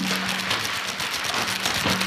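A constant, dense crackling patter like steady rain, made by shaking aluminium foil, continuous and fairly close with no voices, plus a faint low hum underneath.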